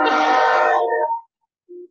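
A train sounds its horn in one loud, sustained blast of about a second that cuts off, followed by a short, fainter low tone. No one speaks.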